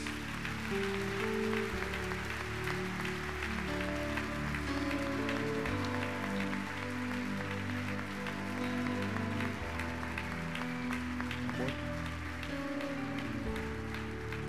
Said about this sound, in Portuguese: Vamos aplaudir a Jesus por cada uma dessas vidas.